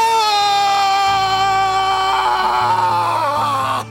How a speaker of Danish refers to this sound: Din motivation er, at du skal give slip i i alt. I simpelthen alt. Okay. Det er sådan en primal scream.